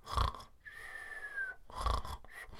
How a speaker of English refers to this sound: smoked his vape pen. And why the hell not? We're all adults. I'm not telling tales. It's a free country. I merely mention it because at times it does vaguely sound like a cartoon character has joined us and he's snoozing in the room.